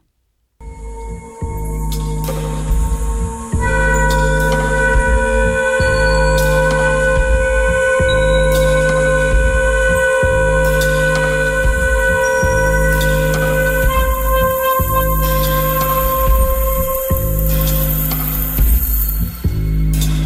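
Electronic jazz quartet music: a steady, repeating low-pitched pulse loops in regular bars under sustained high tones and shimmering noisy textures, loud and continuous throughout with no voices.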